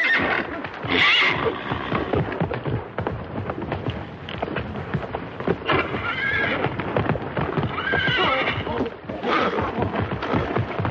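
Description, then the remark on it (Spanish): A horse bolts and kicks out of control, neighing and whinnying loudly several times while its hooves pound and clatter in a fast, chaotic rhythm, with heavy thuds of wild kicking, all continuous. “caballo se desboca y cocea descontrolado.”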